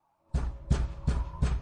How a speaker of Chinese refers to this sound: 那门外的敲门声依旧不停的响在耳边。说实在的，真的是听得我有些心烦。